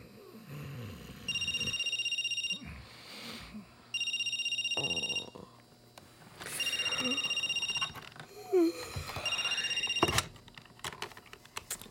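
A telephone rings in four evenly spaced bursts of bright, electronic tones, each lasting about a second, with soft rustling and low background noise between the rings.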